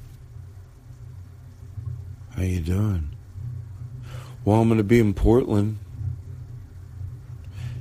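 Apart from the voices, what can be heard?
thunder rumbling outside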